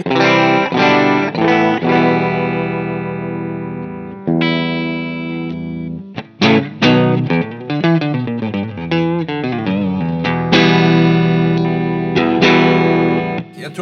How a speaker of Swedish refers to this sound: Vi kan ju visa ja. hur de är rena, hur, hur det låter rent. Ja. Yes, då är det min stratta då, då.